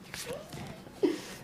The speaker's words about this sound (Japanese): シャッフルの音聞かせた方がいいよね